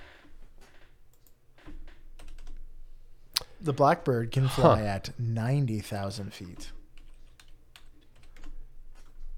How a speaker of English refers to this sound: I'm I'm I'm fat fingering my calculator right now.